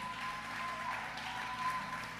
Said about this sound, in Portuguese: Vamos aplaudir o pessoal que está aqui nas câmeras também